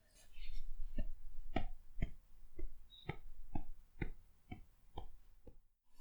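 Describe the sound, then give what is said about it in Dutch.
Steady, evenly spaced tapping of legs thumping a surface about twice a second, around ten dull taps in a row against a quiet background, as a person taps out the three times table with their legs. “Ondertussen mag je de tafel van drie gaan tikken met je benen.”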